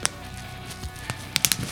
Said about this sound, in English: What is it? What are you doing? It's bubble paper.